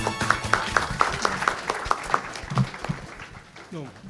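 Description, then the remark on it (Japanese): An audience at an IR seminar held in Tokyo on July 1 applauds to welcome the president of RaQualia Pharma, with a dense, steady patter of many hands clapping at moderate volume, fading slightly as a voice begins speaking near the end. “どうぞ大きな拍手でお迎えください”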